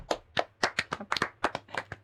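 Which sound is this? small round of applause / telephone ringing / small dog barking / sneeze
small round of applause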